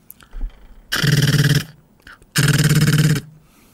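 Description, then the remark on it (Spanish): A voice imitates machine gun fire in two loud bursts of rapid rattling pulses, each lasting under a second, separated by a short pause. “es una metralleta, ¿no?”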